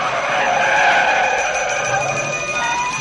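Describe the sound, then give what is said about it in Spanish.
A DeLorean car skids hard to a stop in the middle of a road at dawn, its tires letting out a loud, sustained screech that holds steady for a few seconds before easing off slightly at the end. No voices. “Se fija en algo y para en medio de la carretera.”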